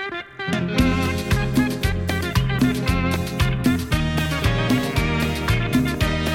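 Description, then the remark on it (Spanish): A big Christmas hit pop song plays loudly and continuously, with a steady thumping beat, punchy bass and bright layered instruments, and no one talking over it. “Así es, tremendo exitazo ahí para las navidades.”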